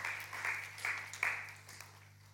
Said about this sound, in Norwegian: Dere kan gi dem en applaus. Det syns jeg godt dere kan.